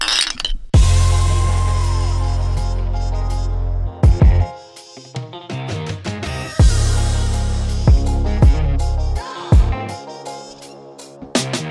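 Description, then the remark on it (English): Several sharp glass clinks ring out at intervals, like glasses touched together in a toast, over a loud, booming bass-heavy music bed with no talking. “Cheers, fellas. Cheers. Cheers.”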